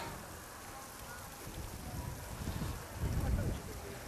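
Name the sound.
heavy rain falling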